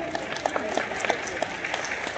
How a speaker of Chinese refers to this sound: 我越讲越兴奋，我们再给爱多美一个掌声。